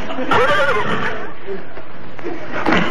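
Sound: horse neighing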